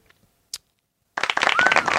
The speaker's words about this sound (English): Audience is clapping.